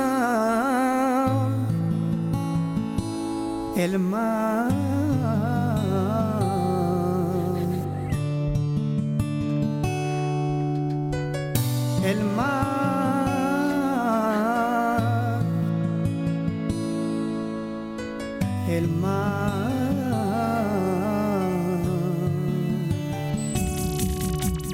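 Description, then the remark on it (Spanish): A sung ballad plays steadily, a voice holding long, drawn-out melodic lines over sustained instrumental accompaniment, with short breaks between phrases and a fairly full, even loudness throughout. “Sí, es una balada.”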